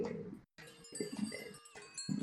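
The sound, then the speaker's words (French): A goat bleats in a few wavering, nasal calls separated by short pauses, fairly faint, with no one speaking. “et puis il a sauvé une de mes chèvres. je, vais vous la montrer je vais vous la montrer.”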